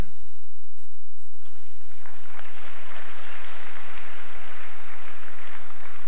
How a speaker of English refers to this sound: The way you clap your hands is revealing to me that you don't know what you're talking.